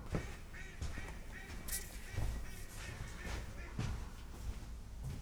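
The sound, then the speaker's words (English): Several ducks quack repeatedly and loudly in irregular bursts, with overlapping harsh calls and steady background noise; no one speaks. “Hear those ducks ruining our podcast? I'm sure you can hear them.”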